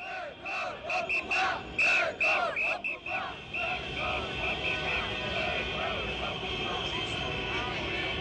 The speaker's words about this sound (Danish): på Champs-Élysées er billedet fuldstændig modsat. Der går til magten råbes der og truttes med bilhorn.